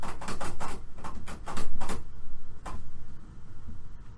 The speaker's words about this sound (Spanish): Güey, ¿tu gato alcanza la puta perilla de la puerta? No, eso fue la perilla, güey.